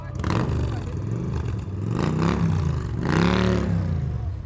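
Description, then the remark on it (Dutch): A motorcycle rides across the grounds, its engine revving and rumbling past, pitch rising and falling as it accelerates, with clattering mechanical noise over a steady loud drone. “Er rijdt nu gewoon een complete motor van de Ravens over het terrein heen.”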